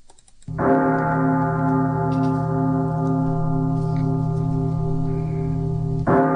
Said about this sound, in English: That's a church bell at midnight.